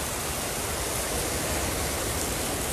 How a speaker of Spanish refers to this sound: Vamos a seguir caminando precisamente por esta por esta playa de La Boquita, aquí en el municipio de, Manzanillo, para que ustedes puedan observar precisamente este intenso oleaje que en estos momentos se está registrando y la gran cantidad de lluvia